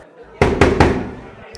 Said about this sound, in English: There's a door with like a little panel, and she just knocks three times on it.